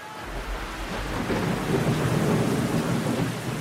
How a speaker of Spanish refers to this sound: La noche comenzaba a caer y una tremenda lluvia azotó la boscosa zona por donde buscaban al maleante.